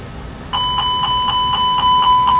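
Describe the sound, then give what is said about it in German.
An aircraft engine fire warning alarm for a simulated engine fire starts suddenly and rings loudly and steadily, a rapid bell-like tone pulsing about four times per second. No one speaks. “Hier hört man also die Feuerwarnung, die wird einmal gecancelt, also durchgestellt kurz und dann beginnt die Kollegin mit einem Verfahren, das sich TPAA nennt.”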